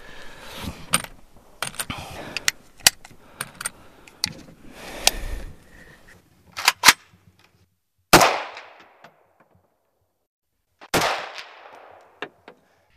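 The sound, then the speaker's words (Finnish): Two loud, sharp gunshots ring out several seconds apart, each trailing off with an echoing decay, after a stretch of quieter mechanical clicks and handling noises. “No niin, vielä pari ammun ja sitten tuon sen pois.”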